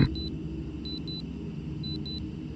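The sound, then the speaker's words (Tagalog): A worn wristwatch, which also lights up, sounds its alarm at three in the morning though no alarm was set, beeping in quick pairs of thin, high-pitched chirps, repeating three times over a steady low rumble of background noise, fairly faint. “Nagtataka kasi ako dahil bigla na lang tumunog kahit hindi ko nilagyan ng alarm.”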